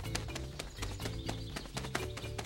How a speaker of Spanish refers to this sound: en el valle solo se escuchó el aleteo de algunos pterodáctilos que cruzaron el cielo en ese momento.